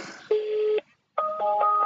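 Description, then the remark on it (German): A mobile phone on loudspeaker rings out on an outgoing call that goes unanswered: steady electronic tones in two bursts separated by a short silence, fairly loud, with no voices. “Ich bin gespannt, ob der rangeht.”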